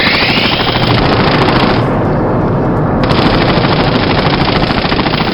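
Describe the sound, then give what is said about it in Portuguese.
Loud, sustained machine gun fire rattles nonstop for several seconds, a dense rapid stream of shots with no pauses and no voices, as a woman empties a machine gun at the group. “E daí que ela é bonita se ela tá descarregando a metranca na gente?”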